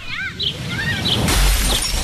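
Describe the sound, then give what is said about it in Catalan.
A window shatters with a loud crash and a low thud, followed by bright tinkling glass fragments; a few high, chirpy sweeping tones come just before the break. “Finestra.”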